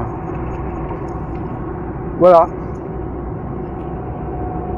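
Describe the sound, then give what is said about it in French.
Steady, unbroken road rumble from inside a car cruising at speed on a motorway, loud and constant throughout, with one short spoken word from a voice partway through. “ouais, de toute façon, je vais être obligé parce qu'au bout d'un moment, la voiture va s'arrêter toute seule.”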